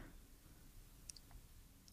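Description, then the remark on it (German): Keyboard typing: a few faint, scattered key clicks against a quiet background, then one sharp, loud keystroke right at the end. No one speaks. “man hört das Tippen sehr.”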